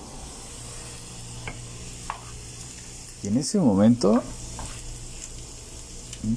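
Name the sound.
food sizzling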